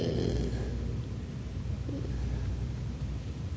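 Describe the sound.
A voice imitates a person's snoring: a low, rough, rattling rumble held steadily for a few seconds, fairly quiet, with no words spoken.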